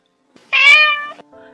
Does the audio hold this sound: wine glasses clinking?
no